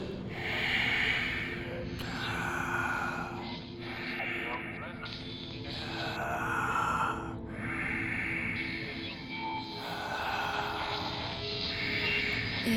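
Slow, heavy breathing through a baby monitor, each raspy breath repeating roughly every two seconds, close and loud over a steady electronic hum and hiss.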